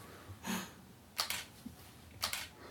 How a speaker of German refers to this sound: Funktioniert die Kamera jetzt? Mhm. Alter, Alter, ist die schnell. Die ist ja voll gut. Jetzt Deshalb habe ich, das ist ja auch meine Kamera.